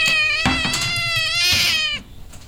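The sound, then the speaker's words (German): A cat named Lou lets out one long, loud, drawn-out meow, wavering in pitch for about two seconds like a yowl, then cuts off into quiet background noise. “Na danke, Lou, du Feigling-Kater.”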